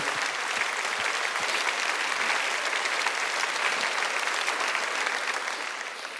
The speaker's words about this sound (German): Und wenn er es in deinem Leben schon getan hat, dann gib doch ihm mal einen mächtigen Applaus für das, was er getan hat.